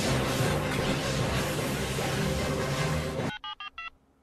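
Loud, steady hissing static runs for about three seconds, then stops abruptly. Four short, evenly spaced touch-tone beeps follow as a phone number is dialed.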